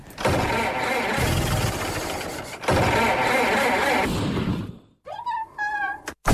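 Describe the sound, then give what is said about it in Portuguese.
A car engine damaged by putting the wrong oil in it struggles and rattles loudly in two long, rough bursts, then cuts out and gives way to short, high, wavering squeals. “Pus um óleo qualquer no motor e estraguei isto tudo.”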